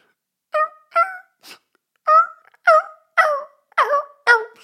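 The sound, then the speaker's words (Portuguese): A voice imitates a dog whining at a funeral: about eight short, high, nasal whimpers in an uneven series, fairly loud, with brief silences between and no talking. “Bem, ganda acting de cão.”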